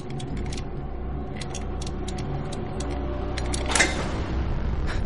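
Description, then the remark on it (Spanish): In an office, Ryu, forced to kneel before a safe, turns its combination dial in short bursts of light, crisp ticking clicks, irregularly spaced over a steady low hum, with a brief louder rush of noise near the end. No one speaks. “Ryu gira la rueda numérica de la caja fuerte.”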